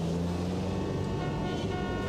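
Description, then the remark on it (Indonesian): Dense road traffic in a traffic jam with a steady engine rumble, while car horns blare in long sustained honks that overlap throughout, loud. “Aduh jalanan macet banget lagi.”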